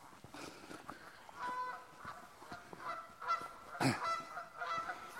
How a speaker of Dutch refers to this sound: Die maakt een geluid als een koe. Het is wel weer zo'n gans. Ja, een Canadese ganzen. Dat is het geluid is trouwens kan het Canadese ganzen. Oké. Okay. Ze zijn boos op elkaar.